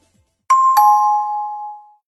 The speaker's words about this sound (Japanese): 前回のチャイム